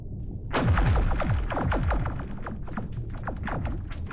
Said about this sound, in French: On dirait des tirs laser d'une bataille stellaire.